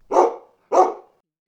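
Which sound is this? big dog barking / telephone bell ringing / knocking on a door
big dog barking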